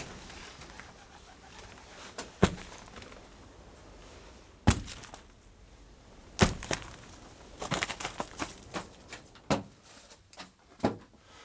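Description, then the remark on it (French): Shot pigeons being gathered and dropped into a bag at about 21:17 in the evening, the count reaching 62: irregular soft thuds and rustling bursts spaced a few seconds apart, quickening toward the end, over a quiet outdoor background with no talking. “Donc je vais commencer à ramasser les pigeons.”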